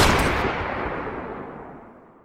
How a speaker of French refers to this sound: n'y avait pas réfléchi à deux fois avant de tirer une balle de son magnum dans le bras armé de l'assaillant.